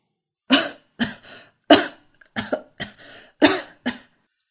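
A harsh, hacking coughing fit: about seven loud, raspy coughs in uneven clusters with brief wheezy gaps between them, no talking.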